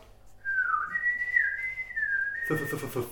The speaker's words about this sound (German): Also Zeit nochmal für den Vogeljingle, oder?